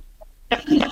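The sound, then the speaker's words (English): A big, loud yawn bursts out after a moment of near silence, a short breathy vocal sound lasting about half a second. “That was a yawn. That was a really large yawn.”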